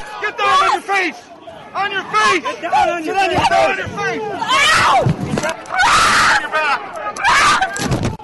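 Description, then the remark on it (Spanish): A woman journalist screams and cries out repeatedly during a violent police arrest as she is thrown face down and her face is held against the floor, amid a chaotic tangle of shouting voices, with loud bursts of scuffling noise and commotion. “gritó mientras la tiraban boca abajo y mantenían su cara contra el piso.”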